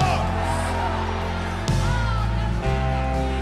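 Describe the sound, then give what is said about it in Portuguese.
A church audience at Igreja do Avivamento shouts and cheers for joy in a loud, sustained roar of many voices, with steady musical tones sounding underneath throughout. “Dá um um grito de júbilo, igreja do avivamento.”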